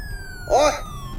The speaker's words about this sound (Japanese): あ前の車追い越し車線トロトロ走って邪魔やなサイレン鳴らしたろちょ待て待てなんだこのサイレンの音は